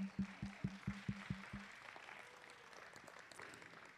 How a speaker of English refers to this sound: Do you mind to just stand up and we want to give you a, a, an applause for doing that?